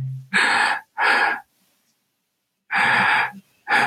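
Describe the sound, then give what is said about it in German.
A voice imitates panting, making four loud, breathy huffs in an uneven rhythm, two quick ones, a long pause, then two more. “Ja, dieses Hecheln.”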